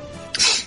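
A single sneeze bursts out sharply after a brief quiet moment, a breathy, hissing explosion that is fairly loud before fading quickly.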